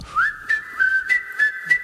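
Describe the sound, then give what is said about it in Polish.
On RMF FM radio, a person whistles to call a dog that ran off to the neighbours: one long, high, piercing note that wavers slightly in pitch, with short, breathy swells pulsing through it at a steady rhythm. Nobody speaks. “czy możecie mi zagwizdać z radia, bo pies mi pobiegł do sąsiadów.”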